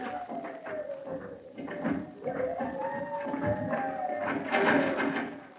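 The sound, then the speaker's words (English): A bolted, locked door is tried and strained against its lock, giving long, wavering wooden creaks and dull rattling knocks, continuous for several seconds, with no voices. “Hmm, the door seems to be bolted. How strange. The door is locked.”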